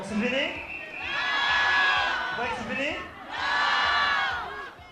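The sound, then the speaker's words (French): A large concert crowd in Niamey shouts and cheers loudly, the roar of many voices swelling twice, dipping briefly in between and then surging again. “Ça dépend de vous, vous êtes là à crier euh, non, non, non, mais criez”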